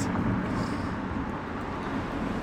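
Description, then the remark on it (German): A steady, fairly loud rumble of a car going by outside, a broad whooshing engine and tyre noise that holds for a couple of seconds with no voices over it. “Auto, ganz kurz.”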